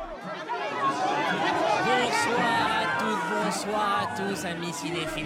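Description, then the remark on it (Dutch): Dense crowd chatter at the red carpet of the Cannes film festival, many overlapping voices talking at once at a steady, busy level, with occasional sharper exclamations rising out of the hubbub. “Dit is het geluid van de belangrijkste rode loper op aarde.”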